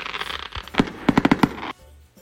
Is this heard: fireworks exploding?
yes